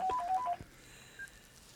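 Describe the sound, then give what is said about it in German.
A quick run of about six short landline telephone keypad beeps as a call comes in, rapid and evenly spaced, followed by a faint click and quiet room tone with no talking. “Ich, ich kriege hier gerade krieg einen Anruf rein. Ich muss da mal ganz kurz reingehen. Moment. Du hast oh. Festnetz, ist ja da.”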